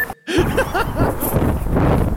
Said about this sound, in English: it's fucking windy out here. I'm running by the water where it's extremely fucking cold.